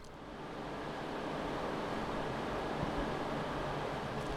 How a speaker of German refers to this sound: Unten in der Nähe vom Fluss hört man, wie das Wasser zu den Turbinen rauskommt.